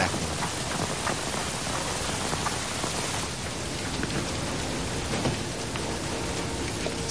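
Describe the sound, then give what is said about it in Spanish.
Heavy rain pours down steadily, a dense, continuous hiss of drops striking surfaces, with no pauses or voices throughout. “Llueve intensamente”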